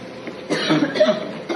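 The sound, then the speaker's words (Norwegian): Short, raspy coughing bursts from a patient lying in a corridor of a hospital in Spain, over a steady murmur of background noise, with a second cough near the end. “Her ser vi pasienter ligge trykka inn mot veggen i gangene på sykehuset. Rett på gulvet. Noen hoster.”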